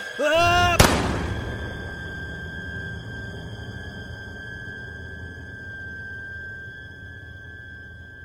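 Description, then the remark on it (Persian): A single sharp rifle shot, fired with the rifle held against the shooter's own temple, cracks out after a brief wavering, rising tone, then a steady high-pitched ringing hangs on and slowly fades for several seconds. “توفنگ آوردم بالا گذاشتم رو شقیقه خودم و با همه وجود فریاد کشیدم و ماشه رو زدم”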